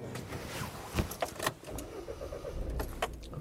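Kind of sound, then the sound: vehicle, car engine starting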